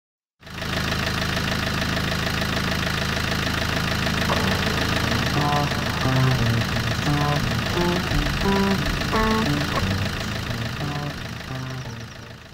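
A car engine idles steadily with the handbrake on and the exhaust releasing gases, a continuous low rumble with a slight knocking texture, while intermittent muffled tones and murmurs drift over it from about the middle onward.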